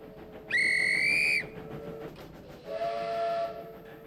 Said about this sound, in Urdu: یہ وہ آواز ہے شائقین جس کا دس سال سے انتظار کر رہے تھے زگ زیگ ریلوے پچھلے دس سالوں سے بند تھی لیکن کئی سالوں کی مہم کے بعد اب سڈنی کے مغرب میں بلو ماؤنٹینز میں چلنے والی تاریخی ریلوے سروس ایک بار پھر بحال ہو گئی ہے